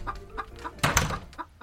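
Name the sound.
rooster clucking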